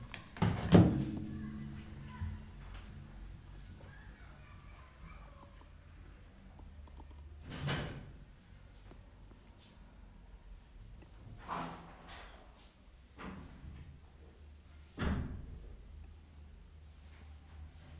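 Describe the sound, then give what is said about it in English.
A door swings shut with a solid thud near the start, followed by a few more muffled knocks and bumps amid otherwise quiet surroundings; it is an ordinary door in Egypt. “Let me just get the door.”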